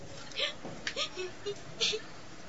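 A girl cries in short, breathy sobs and hiccuping gasps, several uneven bursts over a couple of seconds, fairly close but quiet, with no talking.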